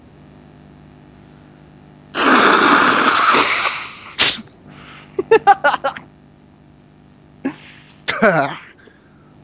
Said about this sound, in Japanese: 鼻かんで、鼻かんでたよね、今。鼻かんで。新しいよね。斬新なやつだよね。